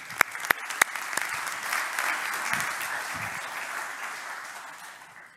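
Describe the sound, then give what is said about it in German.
Audience applause fills the space, starting with a few sharp, loud claps that quickly blend into a steady, dense wash of clapping from many hands before gradually thinning out. “Applaus für euch.”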